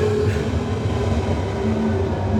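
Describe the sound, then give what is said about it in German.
An S25 S-Bahn commuter train rumbles into Tegel station, a steady loud mechanical roar with humming motor tones and a faint brief squeal, no voices present. “Ah, jetzt kommt gerade mal wieder einer.”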